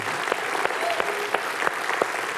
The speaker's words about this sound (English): And so we just want to, man, we can give her applause. That's pretty cool. Yeah.